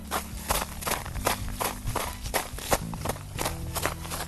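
Footsteps crunching through snow on a backyard running course during a run, a steady, brisk rhythm of about a dozen gritty, crackling steps at even loudness, with a faint low hum running underneath.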